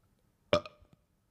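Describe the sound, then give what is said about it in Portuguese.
A single loud burp erupts after a moment of silence, rough and throaty with a short voiced tail, followed by a tiny click-like sound. “eu arroto, eu arroto, bicho.”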